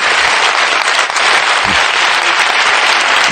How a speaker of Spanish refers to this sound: Un aplauso para el presidente.